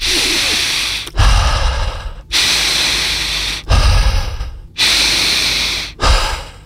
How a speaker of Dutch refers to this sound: dat is gewoon de inademing aan de uitademing vastplakken zonder dat er een stop tussen zit. Kun je dat even voordoen? even het geluid erbij. um, Zal ik dat even door mijn neus in dan? Dat ja? heeft iets meer geluid.